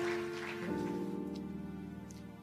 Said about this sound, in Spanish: ¿Cuántos dicen amén? Démosle un aplauso fuerte, fuerte, fuerte al Señor.